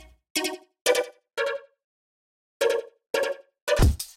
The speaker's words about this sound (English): And lastly, I made a quick accompanying sound to go with this. It's using detuning again, only we've got some FM being applied here this time, which is adding some nice higher harmonics.